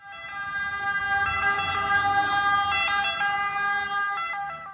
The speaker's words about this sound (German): Das ist die Sirene der Ambulanza. Aber das ist eigentlich auch so allgemein ein Alarmzeichen natürlich.